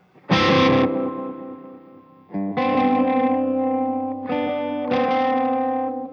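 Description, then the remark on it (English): An electric guitar run through an impulse response of an old Fender Echo Reverb oil can delay, playing three loud, overdriven chords that ring out long, each one trailing into a warm, wobbling echo, with no talking. “a direct IR, again, my request to Loki, and he did it, of, a, of an old Fender Echo Reverb, which are those oil delay”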